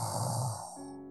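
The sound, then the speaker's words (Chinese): A single snore from inside a tree hollow, where an owl is sleeping in the daytime: a rough, rumbling inhale with a breathy hiss, easing off into a softer, steadier hum as it fades, with no talking. “”树洞里传来了打呼声。”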